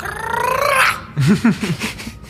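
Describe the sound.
A voice imitates a contented lizard: a drawn-out, rising, purring hum, then after a short pause a few wobbly, gurgling croaks, fairly loud.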